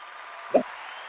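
A steady wash of applause fills the short moment, dense and even, with one brief louder thump partway through.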